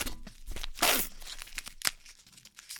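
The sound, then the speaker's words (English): The wrapper of a dark chocolate peanut chew candy being torn open, with a loud ripping burst followed by several shorter crinkly tears and rustles of plastic, no voices. “We are opening.”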